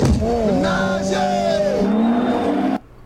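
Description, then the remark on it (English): A car in a film scene from Ja Rule's acting career roars past with a loud, whining engine that shifts in pitch as it goes by, with a hint of tire squeal, before the sound cuts off abruptly. “When the car passes him, he's like, "What?"”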